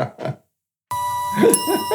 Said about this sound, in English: Do the triangle one more time.